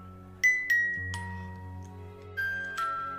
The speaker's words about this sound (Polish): Dźwięk pozytywki? Jesteś przekonany, że to kuryzalna myśl. To jest muzyka z Harry'ego Pottera.